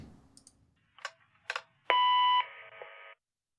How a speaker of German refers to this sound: während ihr da so rumsitzt, ähm, erhaltet ihr einen Anruf auf eurem Telefon und der Anrufbeantworter geht dran. Und ihr hört folgendes.